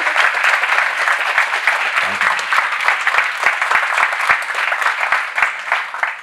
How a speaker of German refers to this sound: Ja, applaudiert. Auf jeden Fall.